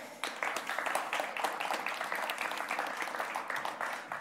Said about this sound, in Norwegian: Gi en stor applaus til Arne Børke.